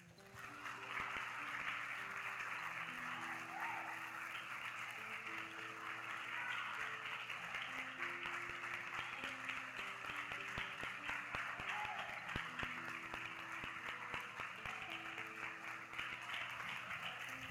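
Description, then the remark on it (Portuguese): A large church audience applauds the name of the Lord at the end of a worship service, a dense, steady wash of clapping that stays loud throughout, with sustained keyboard chords playing softly underneath. “Você pode aplaudir o nome do Senhor?”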